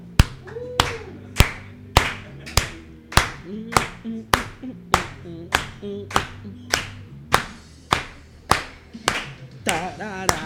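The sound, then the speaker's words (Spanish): An audience claps in unison, sharp loud claps in a steady beat of about two per second, continuing the whole time over a song with a melodic voice underneath. “Siempre me mama cuando empiezan a aplaudir aquí.”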